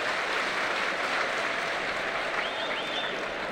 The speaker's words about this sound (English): the customary warm round of applause by the Wrexham fans for the four figures of Gillingham supporters who've come here.